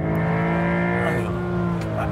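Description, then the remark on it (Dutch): The six-cylinder boxer engine of a new Porsche 911 Targa sports car drones steadily, its deep harmonics holding a sustained rev with slight rises in pitch, loud and continuous throughout. “Nee, 6 welbekende zescilinder boxermotor natuurlijk.”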